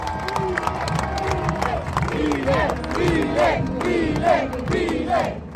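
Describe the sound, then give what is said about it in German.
A large crowd of thousands cheers and shouts euphorically in the heat outside Congress in central Buenos Aires, Argentina, as Javier Milei takes office as the new Argentine president in December. A dense continuous roar with rising voices and yells breaking through, plus scattered clapping throughout. “Sie schreien euphorisch in der Hitze, als Javier Milei im Dezember sein Amt als neuer argentinischer Präsident antritt.”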